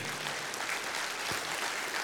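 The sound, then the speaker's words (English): An audience at a church service applauds steadily in praise of God, a dense wash of many hands clapping at an even loudness throughout, with no voices standing out. “Can somebody give God praise for that?”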